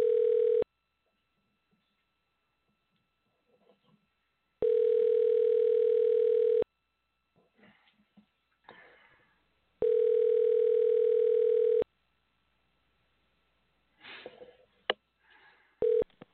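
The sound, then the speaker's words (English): A telephone ringback tone from a radio show host placing a call for an on-air interview sounds three times, each a steady two-second buzz separated by long pauses, with faint rustling and small handling noises in the gaps. “I should have that Jeopardy music playing while we wait for the phone to ring.”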